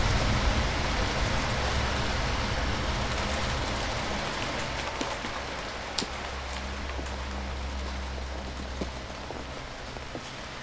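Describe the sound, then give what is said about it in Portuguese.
Steady rain pattering on a hard surface, a dense, even hiss with occasional sharper drips standing out, continuous throughout with a low rumble underneath and no voices. “E há, há de haver a chuva chove.”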